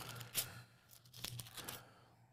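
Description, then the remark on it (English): Quiet paper handling: a few sharp crinkles and rustles as a paper clip is slid off a stack of sheets, with small clicks scattered across a couple of seconds and no talking. “Up, oh, gotta get the paper clip out of the way.”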